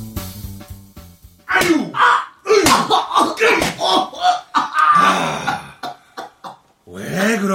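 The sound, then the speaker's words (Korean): A flurry of fist punches lands, sharp thudding blows falling in an irregular rhythm, loud, with a man's pained groans and cries between the hits. “왜 주먹을 쓰게 만들어?”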